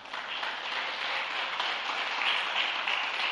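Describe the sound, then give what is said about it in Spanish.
A church audience applauds themselves steadily, a dense wash of many hands clapping at once, fairly loud and sustained throughout with no clear pauses or voices. “Hoy, dése un aplauso usted mismo, por favor.”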